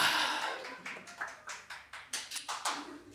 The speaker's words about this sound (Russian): Да, такие аплодисменты поддержки, спасибо. Это важно. Да, да, да, не, не, ну все, поддержали, хватит